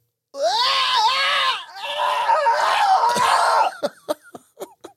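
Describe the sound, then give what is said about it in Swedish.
A voice imitates a loud, strained scream from a nightmare, sustained for a few seconds with a brief break, then trails into short choppy gasps and grunts. Intense, with no other sounds. “Eh, och jag ligger där och tycker mig skrika ashögt.”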